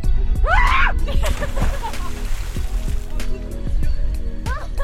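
A person on a boat off Brittany, France, on 7 July 2023 splashes seawater onto their neck before a swim, in a few small, uneven handfuls over a steady wash of surf-like noise. A short high-pitched squeal rises near the start, and another brief cry comes at the end.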